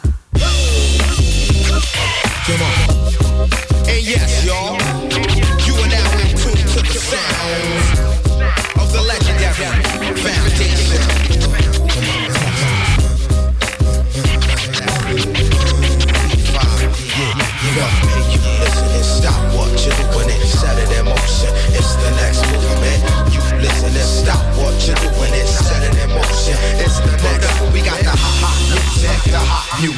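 A loud, steady hip-hop band groove with punchy live drums and a deep, heavy bassline, dense instrumentation layered on top and playing continuously throughout, with no talking over it; played on the radio station Radioactive.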